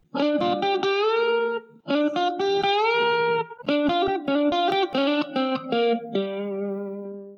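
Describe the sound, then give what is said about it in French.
A short intro jingle of bright, effects-heavy electronic melody, played in three quick phrases with brief gaps, loud, ending on a sustained note that fades out. No voices. “C'est parti, jingle”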